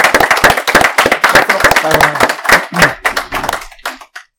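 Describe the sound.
A small group claps together, a dense patter of overlapping hand claps that holds steady for about four seconds and then thins out to a few last claps, with faint voices mixed in.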